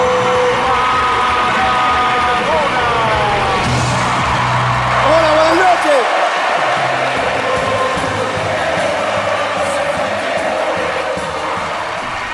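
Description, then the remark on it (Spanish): A large crowd stands and gives a loud, sustained ovation welcoming Diego Armando Maradona on the special TV program La Noche del 10, with roaring cheers, shouts and whistle-like calls blending into a dense, continuous wall of noise that hardly lets up for twelve seconds. “Recibamos de pie y con una ovación a Diego Armando.”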